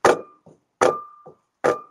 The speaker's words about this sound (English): Yeah thumping. I said, Can you hear that? And we actually got it recorded live on air that there were these footsteps above me coming from the room above me.